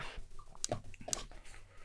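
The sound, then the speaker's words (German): Quiet smacking and chewing noises from someone eating, with a couple of sharper wet bursts standing out over a soft background, and no talking. “Ey, mir ist das egal, wie ihr das Schmatzen stört, jetzt mal ganz ehrlich.”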